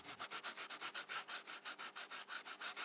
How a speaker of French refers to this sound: Des crayons sur les feuilles.